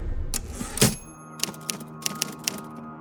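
A typewriter clacks out a handful of sharp, uneven keystrokes, one heavier thunk early on followed by sparse, hesitant taps with pauses between them; no one speaks.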